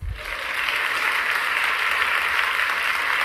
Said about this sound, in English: She gets a round of let's go ahead and give her a round of applause.